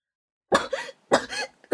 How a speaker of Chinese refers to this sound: 一股浓烟伴着呛人的气味从机器中冒出来，熏得众人直咳嗽。